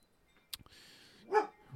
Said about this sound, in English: She came out to lay in the sun, and she still wanted to bark at people out front.